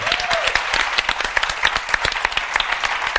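A room full of people applauds steadily, many hands clapping in a dense, continuous patter at a moderate loudness, with a brief whistle rising over the clapping near the start.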